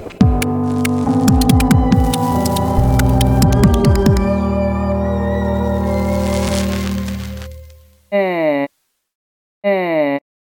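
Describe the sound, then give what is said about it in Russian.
After a long, dense drone with layered hum and clattering tones fades out, a buzzy synthesized vowel sounds twice, each a short, steady, fairly loud tone separated by a moment of silence, voiced by a reconstructed vocal tract of a 3,000-year-old Egyptian mummy of a priest and scribe. “Это вы слышите, как э. произносил гласные э. звуки египетский жрец и э.”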